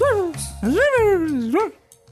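A dog gives loud, drawn-out barking cries that slide up and down in pitch, two long calls back to back before falling quiet.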